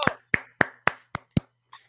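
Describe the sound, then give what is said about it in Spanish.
Six sharp hand claps in a quick, steady rhythm, fairly loud, applauding cyclist Marc Soler for winning a stage of a grand tour, followed by one softer clap after a short pause; no one talks. “Un aplauso.”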